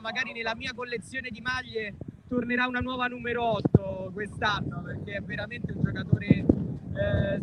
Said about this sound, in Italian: Scusate il vento, ma sono a Liverpool, quindi c'è anche il vento.